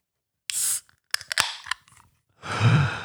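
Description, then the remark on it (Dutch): A can of citrus drink is opened: a brief hiss, a cluster of sharp metallic clicks and cracks from the tab, then a louder rush of fizzing gas, with no voices. “Maar het klinkt er dus, zo. Het klinkt er. het is een blikje.”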